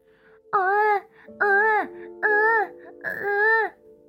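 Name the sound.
infant crying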